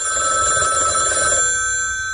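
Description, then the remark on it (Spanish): A telephone bell rings loudly, a bright, steady metallic trill that lasts over a second before fading into a lingering ring. No one speaks. “¿Cogerías la llamada?”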